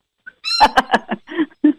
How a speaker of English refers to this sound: I have no idea what kind of bird that is. That's a beauty, though.